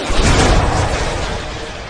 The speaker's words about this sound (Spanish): Toma, qué portazo, por Dios.